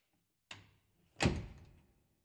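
A man very carefully closes a door: it swings shut with a soft initial contact, followed moments later by a fuller, muffled thud as it settles closed, with no voices.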